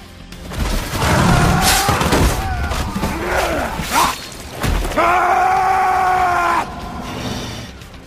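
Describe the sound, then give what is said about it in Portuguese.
Several sharp gunshots crack out amid chaotic noise, mixed with loud, strained screaming and groaning voices, ending in a long sustained scream. “você sem muito tempo de reação vê ele correndo e de repente os disparos começam.”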